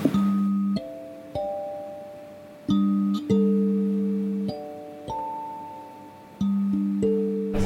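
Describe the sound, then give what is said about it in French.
A sanza, a small thumb piano with metal tines, is plucked in a gentle, repeating pattern of ringing notes, each chord-like pluck sustaining and fading before the next, very soft, with no voices. “Donc les, la senza, qui est un petit euh, piano à pouce à euh, lamelles métalliques qui fait un son très doux.”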